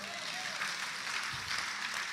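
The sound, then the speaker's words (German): An audience claps again together in a dense, steady wash of applause that holds at an even level for the whole stretch, with no clear gaps between the overlapping claps. “Ihr dürft ruhig nochmal klatschen.”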